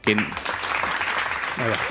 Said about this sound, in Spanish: Los aplausos. Aplausos para el creador, de, para el estudio.